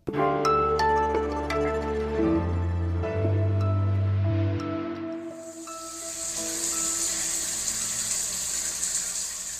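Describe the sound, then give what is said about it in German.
A low droning pipe hum with a few clicks gives way to the steady hiss of a shower spray running on its own, with no voices. “Wenn ich meine Dusche jetzt knapp 10 Minuten lang laufen lassen würde, dann würden ungefähr 100 Liter Wasser da rauskommen.”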